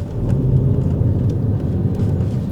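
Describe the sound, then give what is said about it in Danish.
A steady low engine rumble from a car on the move, driving away from the city, a continuous droning hum with a faint whooshing layer of road noise above it and no voices. “Det her afsnit af podcasten starter med en biltur.”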